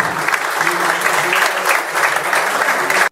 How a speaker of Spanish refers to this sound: Eso lo inventó él. Es una persona, démosle un aplauso al doctor Roberto Querido.